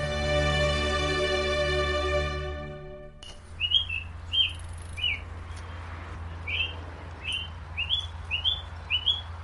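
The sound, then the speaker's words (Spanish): Morning ambience on the campus of the University of Cambridge on a typical March morning, with a steady low hum and repeated high bird chirps and short whistled calls, coming in bursts every second or so over a quiet background, after a brief sustained harmonic tone. “Esto que escuchan de fondo es el sonido ambiente en el campus de la Universidad de Cambridge, una mañana típica del mes de marzo.”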